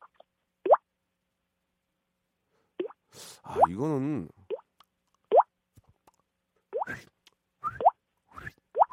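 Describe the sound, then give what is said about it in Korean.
A voice imitates water droplets with a series of crisp mouth plops, about eight spaced unevenly, each with a quick rising pitch, plus a brief warbling vocal tone midway and a few spoken words. “입에서 소리가 좀 어. 맑고 청하게 잘 나와요. 물 떨어지는 소리가.”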